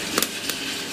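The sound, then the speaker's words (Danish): A steady, dense rushing hum of a coffee roaster drum moving the beans around, broken by a few sharp, crackling pops as the beans reach about 200 degrees, expand and begin their first crack. “Det her er lyden af kaffe, der er ved at blive ristet.”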